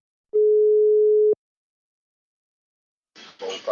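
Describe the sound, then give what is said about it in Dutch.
A single steady telephone ringback tone from a call placed from another number sounds for about a second, a pure mid-pitched hum that cuts off cleanly, followed by silence and then a burst of muffled rustling noise. “laat ik je nu even van een ander nummer bellen.”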